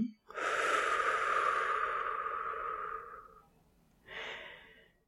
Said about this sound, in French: observez le simple mouvement naturel de votre souffle. Inspiration. Expiration.